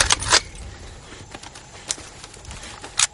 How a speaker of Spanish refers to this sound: Jackson, Melis y Raven cargan sus fusiles.